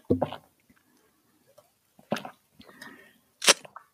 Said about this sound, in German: Prost. Und wir, Prost. Äh, ich stoße mal hier mit meiner Plastikbuddel an.